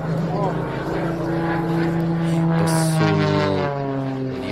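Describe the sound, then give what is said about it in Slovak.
A propeller plane's engine drones loudly and steadily at an airshow in Sladkovičovo, its buzzing pitch holding, then shifting partway through as the aircraft passes. “Boli sme v Sladkovičove na otvorení neba.”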